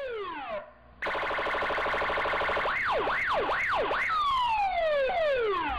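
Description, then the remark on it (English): Loud, close police sirens cycle through several patterns: falling wails, a rapid warbling yelp, then rising and falling sweeps, continuous and without any voices. “While Juan is getting his phone, he hears sirens sounds nearby and some police officers arresting Emilio and other members of the gang.”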